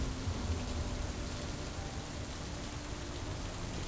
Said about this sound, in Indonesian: Setelah berjam-jam mendaki, dengan badan yang capek, suasana pendakian yang sumpek, mereka diguyur hujan deras banget.